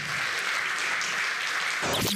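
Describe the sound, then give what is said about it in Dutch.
A crowd applauds, a dense, steady wash of many hands clapping at once, sustained and fairly loud throughout, with a brief burst of lower sound near the end. The applause is for Arjan Snijders, Marcel van Roosmalen and Ron Vergouwen at a live recording of Dit Wordt de Radio at the Online Radio Award 2022. “Mag ik jullie applaus voor Arjan Snijders, Marcel van Roosmalen en Ron Vergouwen.”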